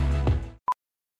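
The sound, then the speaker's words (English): A short Home Depot retail brand sonic logo: a rich, buzzy harmonic tone sounds for about half a second and cuts off, followed by a single brief, clean beep, with no voices. “It's the sound of the Home Depot.”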